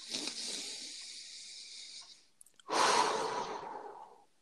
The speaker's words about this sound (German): Du kannst auch mal kurz zehn Sekunden ruhig sein und atmen.